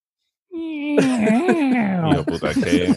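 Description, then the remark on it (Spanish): A voice imitates a creaking door opening: a long, strained, wavering vocal creak that rises and bends in pitch, ending in choppy, breathy fragments. Fairly loud. “Ahora haz el sonido, el sonido de, una puerta abriéndose”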